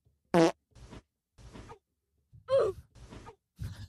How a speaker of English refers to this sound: Dude, the fart just about to come out of the butt, but it doesn't.